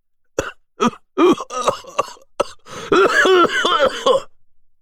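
A thin man suddenly breaks into a violent coughing fit, his body shaking: several sharp, separate hacks, then a rapid run of rough, strained, throaty coughs lasting a couple of seconds, fairly loud and with no talking.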